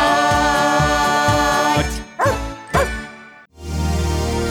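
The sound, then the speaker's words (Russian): A dog named Altai gives two sharp, loud barks a fraction of a second apart as a rhythmic musical jingle fades, before the music swells back in. “Я доктор Михаил Гаврилович, а это мой пес Алтай.”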